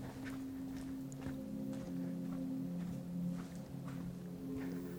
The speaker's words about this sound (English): And I'm walking. head off on the trail. I can still see my car, but not for long. I'm walking at night in the woods.